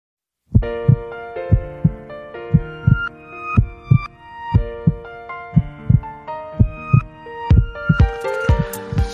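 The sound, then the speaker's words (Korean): A Korean pop song plays loudly, driven by a steady pounding bass beat under bright synth chords, with no talking over it and cymbals building toward the end. “미라마트 문 닫으면서 저희가 노래 들려드려야죠.”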